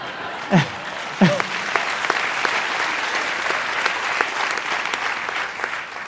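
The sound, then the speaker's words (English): A group of children and teenagers lined up on a fence cheers and claps at a drone launch in a steady, dense wash of noise, with two falling whoops rising above the crowd near the start. “I wanted to show you the kids and the teenagers who line up on the fence every day, and they cheer every launch and every landing.”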